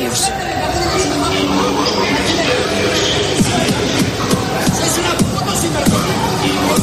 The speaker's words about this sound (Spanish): Fue tal esa desesperación, ese enfado, que lo pagaron, como escuchamos, a golpes con los trenes e increpando a los maquinistas.